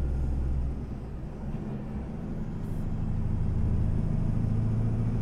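A heavy 750 hp truck engine, hauling 74 tonnes total weight up a 12 percent hill, drones steadily at low pitch, a loud continuous rumble that holds firm and builds slightly as it pulls under load, with no talking.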